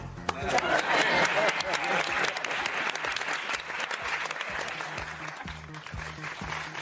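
A large audience applauds steadily, dense clapping holding strong throughout before easing slightly near the end, with faint murmuring mixed into the ovation.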